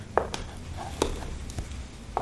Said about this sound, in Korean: 맞아. 22번은 소리 없이 걷고 있어. 귀를 기울여야 발소리를 들을 수 있다고.